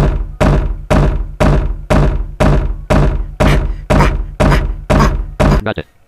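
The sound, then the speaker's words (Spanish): A video game door sound effect: a loud, punchy thunk repeated about a dozen times in a steady, quick rhythm, each hit decaying fast, ending with a brief clipped double tap. “Door. Una puerta.”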